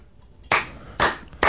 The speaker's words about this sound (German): Verhaltener Applaus hier in Bremen